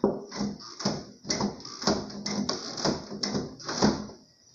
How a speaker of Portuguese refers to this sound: Encostei na rede, a porta foi pro lado, fez uma zoadinha para dizer que tem a palavra paz desenhada na parede ou na porta, sei lá.